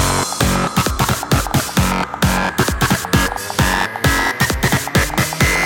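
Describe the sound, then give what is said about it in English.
Loud electronic music with heavy, gritty distortion saturating the whole sound as more fat distortion is added to the track, driven by a steady pounding beat. No one speaks. “More distortion.”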